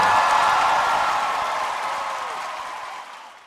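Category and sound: crowd, audience applause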